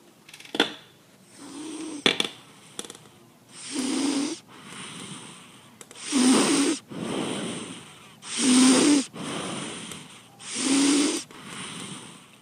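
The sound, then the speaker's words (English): A donkey breathes hard and raspy, with about five loud, rough snoring breaths in a steady rhythm, each a second or so long, preceded by a few sharp clicks and rustles. No one speaks. “going to record donkey snoring.”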